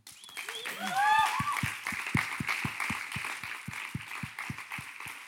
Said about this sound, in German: Und ich möchte sie gerne mit einem tosenden Applaus begrüßen auf der Bühne.